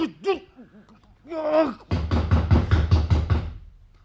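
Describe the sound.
A voice calls out briefly, then police pound hard on a door: a rapid, even burst of about eight loud knocks that stops abruptly.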